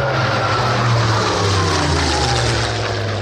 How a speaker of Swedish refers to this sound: Det enda som slår det är nämligen en härlig dag på stranden plus en Messerschmitt 262 jetdrivet stridsflygplan